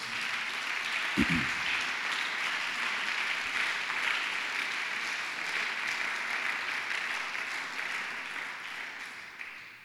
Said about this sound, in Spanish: Dele un aplauso al Señor por eso.